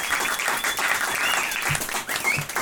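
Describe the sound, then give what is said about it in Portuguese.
A sustained burst of applause from a group, dense overlapping hand claps forming a steady, loud wash of noise for a few seconds with no talking, welcoming a co-host as he is introduced. “A salva de palmas.”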